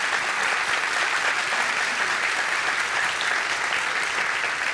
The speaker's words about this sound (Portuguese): Vou aplaudir, né?